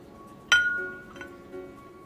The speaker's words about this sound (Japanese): はい、皆さん、今ね、皆さんに カップを下ろす音も聞こえたっていうか、入ってたと思うんですけれども、まあ、はい、皆さん想像つくかと思います。